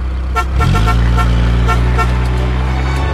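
A vehicle, a big red suitcase used as a car, revs up sharply and holds a loud, steady roar as it pulls away quickly and leaves all the other cars behind, with horn-like tonal bursts repeating over the rumble and no talking.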